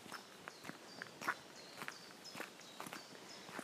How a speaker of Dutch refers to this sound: Dat zijn mijn eigen voetstappen. En ik kies dan een kiezelpaadje uit. Ik vind dat gewoon geweldig om te horen elke keer die stap en het kraken van de kiezels.